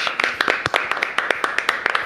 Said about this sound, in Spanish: un aplauso muy fuerte para el señor Alejandro Berkovich.